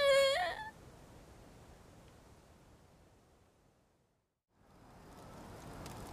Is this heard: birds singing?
no